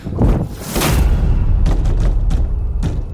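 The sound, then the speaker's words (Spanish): A heavy door slams shut in a priest's face, leaving him outside, with a loud, booming thud, followed by a few more dull knocks and a lingering low rumble. No voices are heard. “Con mirada impasible y una ligera sonrisa, simplemente hizo un gesto y la puerta se cerró en las narices del cura dejándolo afuera.”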